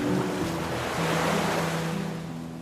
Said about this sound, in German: Und während ihr dort lauft und den Sand unter den Füßen wahrnehmt und das Rauschen des Meeres,